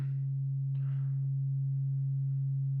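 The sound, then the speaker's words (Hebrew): A steady synthesized pure tone matching the frequency of tuning forks, the Earth frequency called Om, hums continuously at a low pitch, loud and unwavering, with a faint brief noisy burst near the start and no talking. “בדיוק אותו תדר של הקולנים האלו.”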